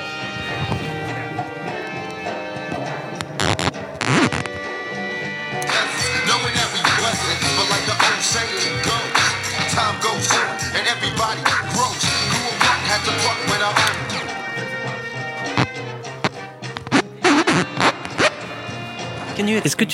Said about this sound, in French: On arrive, on met sa, son vinyle dessus, hop, c'est fait. Et je vais essayer de vous faire écouter le son que ça donne. On chausse un petit casque, je vais mettre mon micro au milieu, et puis vous allez entendre.